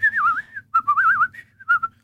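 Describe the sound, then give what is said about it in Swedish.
A person whistles an imitation of a common blackbird's song: three fluid, warbling melodic phrases with short pauses between, fairly loud over a faint low hum. “Ja, så har vi koltrasten.”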